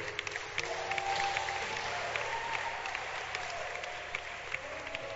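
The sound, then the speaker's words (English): An audience claps their hands in a steady, dense wash of applause that holds evenly for several seconds, with a few faint voices and a low hum beneath it. “Clap your hands for her.”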